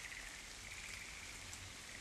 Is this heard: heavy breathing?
no